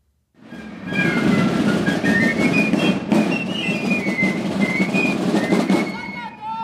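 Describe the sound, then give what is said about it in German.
Shrill piccolo fifes play a wavering high melody over a dense, steady rumble of parade drums, played by the drummers and fifers of the Basler Mittwochgesellschaft in a long Basel procession, loud, continuing without pause for several seconds before tapering off. “Die Tamburen und Pfeifer sind eigentlich fröhliche Schulbuben.”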